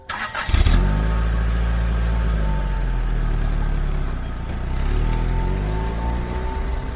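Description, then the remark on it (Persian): A car engine cranks and catches with a sharp burst, then settles into a steady rumbling drone that swells as it revs and the car drives away from part of a park at top speed, fairly loud with no voices. “سوار ماشین شدیم و گازش رو گرفتیم با نهایت سرعت از اون بخش پارک فاصله گرفتیم و واسه رد گم کنی از اون یکی در از پارک اومدیم بیرون”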